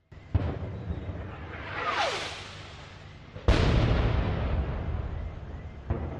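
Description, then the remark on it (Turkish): Several loud rocket explosions boom out one after another as three rockets fired by the Taliban land near the presidential palace in Kabul, Afghanistan, during holiday prayers; each a sharp blast followed by a long rumbling roar, with a rising whoosh between the first two and a final thud at the end. “Cemaat patlama seslerine rağmen namaza devam etti.”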